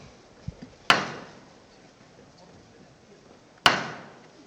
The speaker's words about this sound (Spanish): Finalizada ya la maniobra, ya están los pies del Señor rozando también esos iris morados y suena de nuevo el martillo, va a levantar el paso del Cristo de la Aspiración.